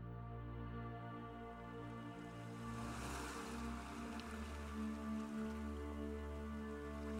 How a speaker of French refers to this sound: La mer est calme